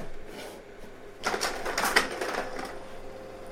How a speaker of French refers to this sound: Ça, sont des pierres que j'ai enregistrées à Ho Chi Minh Pour frapper sur la pierre, là, j'ai utilisé un galet en pierre. Un petit galet, je pense qu'ils avaient que ça.